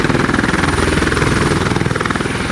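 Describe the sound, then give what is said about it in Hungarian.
A helicopter thunders as it descends, its rotor blades chopping in a fast, steady rhythm over a deep, loud engine rumble. No voices are present. “A helikopter dübörögve ereszkedett alá.”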